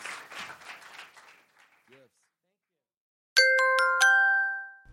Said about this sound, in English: Give yourselves a round of applause for coming out and being so fun.